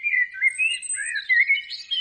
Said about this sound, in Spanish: Otra vez los pájaros estos.